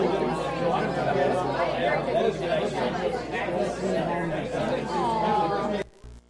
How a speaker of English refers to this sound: Man, don't you love that noise? Isn't it lovely? No, it's, it's actually like, it's a beautiful thing because it means there's people and conversation. I love that.